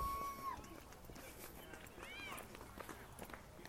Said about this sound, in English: let's listen to life as it happens for a moment. Listen to the chatter, the people running. This could be a nice ASMR clip, right?